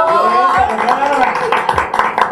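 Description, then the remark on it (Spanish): Audience applause for a guest being introduced, a lawyer and specialist in human rights and the protection of women: a dense, steady patter of many hands clapping for a couple of seconds, mixed with a wash of cheering crowd voices. “Hemos un aplauso.”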